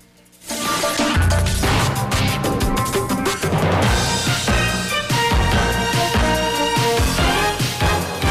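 The Band News FM elections 2020 coverage theme bursts in after a brief pause, a loud, driving full-band jingle with punchy percussive hits and bright brass-like stabs, playing on its own without any talking.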